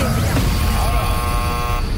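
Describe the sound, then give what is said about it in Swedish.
A quiz time-up horn blares right after the answer Neptune is given. It is loud and buzzy, a steady harmonic tone holding for about a second before cutting off, over a rumbling, noisy background. “Vi hörde Neptunus Ja. innan tutan eh, lät där.”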